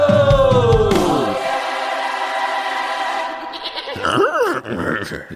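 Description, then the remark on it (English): A person imitates an animal cry, meant as a horse but heard as a goat's bleat: a loud, drawn-out wavering cry, followed by a shorter, quavering bleat. “adds enough goat sounds in post. You don't need to do your own.”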